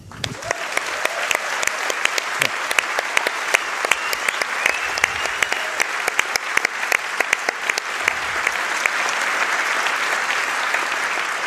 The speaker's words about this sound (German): Und deswegen nochmal ein Applaus für die Meinungsfreiheit.